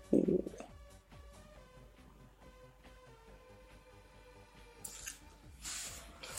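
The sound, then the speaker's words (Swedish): Water being drawn up with wet squishing and gurgling, some squeaky tonal strain, then a louder splashing, spraying rush near the end. “Där fick vi upp lite vatten.”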